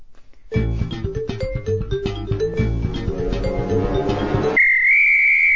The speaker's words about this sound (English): Oh, should we play a sting first?